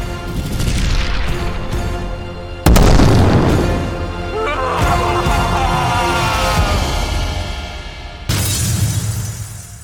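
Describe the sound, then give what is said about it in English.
A loud explosion of light bursts in, shattering a mask, followed by crashing, shattering debris and rumbling, with a second heavy impact near the end; dense and chaotic, with voices faintly mixed in. “As soon as he could see it, an explosion of light filled the space, shattering his mask.”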